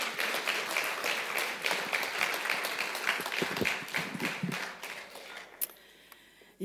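An audience applauds steadily in a dense, crackling wash of many hands clapping, then it thins out and fades toward the end, with one last sharp clap before near silence.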